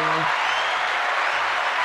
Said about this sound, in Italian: E, ehm, mandiamo un tasto! Mandiamo applausi. un tasto, Appa- applausi o piatti? Applausi, vai. Applausi.